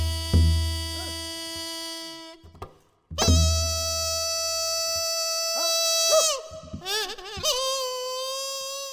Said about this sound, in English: this is called a piri. And this is the smallest of the Korean um, traditional instruments, but it is extremely loud, and it is a bamboo flute, and it sounds like this.